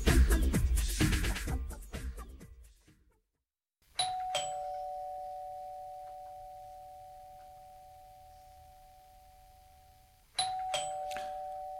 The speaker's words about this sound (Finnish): Kulta, mm? voisitko mennä avaamaan oven? En mene tuohon halpaan. Tänään on aprillipäivä ja tuo ovikellon soiminen on varmasti aprillipila. Ei siellä ketään kuitenkaan ole.